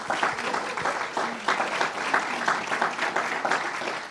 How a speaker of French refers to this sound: Allez-y, applaudissez, oui.